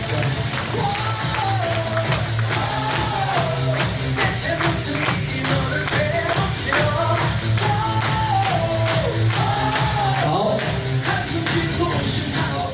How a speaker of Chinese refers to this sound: 要不要再给我们热烈掌声鼓励一下？